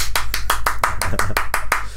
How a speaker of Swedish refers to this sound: En applåd! Uh, uh, till ett möte som gången, jag skulle hålla i. En till applåd!